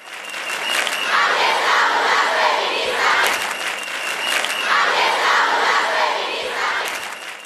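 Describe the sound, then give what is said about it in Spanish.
A large crowd at feminist protest demonstrations in 2018 shouts and chants in rhythmic waves, the massed voices loud and continuous, swelling roughly every few seconds with scattered cheers and claps mixed in. “Todos esos gritos y manifestaciones que escuchamos han marcado 2018.”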